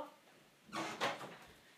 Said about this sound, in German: Ich habe einfach mein, vergessen, meine Tür zuzumachen. Ich mache kurz noch die Tür zu.